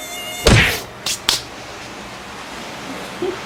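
A thin, high-pitched mosquito whine hums faintly in a company office in the morning, broken by three sharp slapping hits as a man swats at the mosquito, one loud then two quicker ones. No one speaks.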